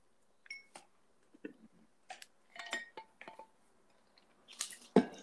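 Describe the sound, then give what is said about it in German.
Someone drinks water from a glass, with scattered clinks of glass, small wet sips and swallows, and a louder knock near the end, no talking. “Du bist ein Profi im Wasser trinken.”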